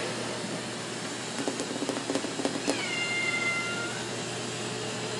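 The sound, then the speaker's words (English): A cat lets out a single drawn-out meow that slides downward in pitch, preceded by a few soft tapping sounds, over a steady low background hum. “I like the way you meow when you run, kitty.”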